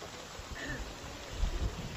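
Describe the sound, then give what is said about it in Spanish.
Water pours steadily into a small glass, a soft continuous splashing trickle lasting a couple of seconds, with a few low thuds near the end and no voices. “Ok, me voy a echar un vasito de agua”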